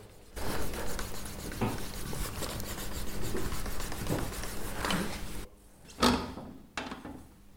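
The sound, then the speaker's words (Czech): Leather strap edges being burnished by hand with wood: steady, rapid back-and-forth friction strokes, a dry rasping hiss, then a brief pause and a couple of sharper, louder rubs. No talking. “Někteří brašnáři na to používají různé pasty a vosky a takhle, ale jako když se to udělá, je to se zlouhavý, ale když to právě udělá takhle ručně dřevem, tak je to jako úplně něco jiného.”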